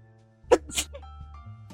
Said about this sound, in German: Ich muss mal ganz kurz niesen, glaube ich.